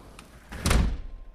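A sliding window slides shut on a cold, snowy winter day with a short scrape, then a solid, fairly loud thump and a brief rattle that fades away. No one speaks.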